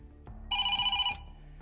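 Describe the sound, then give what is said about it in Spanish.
Two police officers ring the intercom doorbell at a woman's flat: a single steady electronic ring of about half a second, bright and harmonic, cutting in over a low background rumble and then stopping abruptly. “Llegan a la vivienda y llaman al portero automático.”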